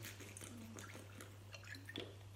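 Quiet sipping of water: soft wet slurps and a small gulp or two against a steady low hum, with no talking.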